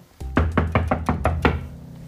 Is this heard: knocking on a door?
yes